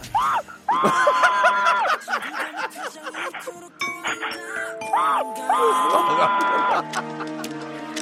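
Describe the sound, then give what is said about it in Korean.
A voice imitates an electric train on Park Myung-soo's Radio Show impressions segment, giving two long, steady humming tones with rising and falling whines, like a train passing, while laughter and chatter sound in the background. “전기기차하겠습니다 예.”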